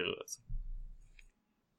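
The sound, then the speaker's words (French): A quick sharp clatter of several dice rolled for a fortune roll, then a low rolling rumble across a surface for about a second, with a couple of light clicks as they settle; fairly quiet. “je vais brasser un fortune roll pour savoir à quel point le plan de cette organisation là avance”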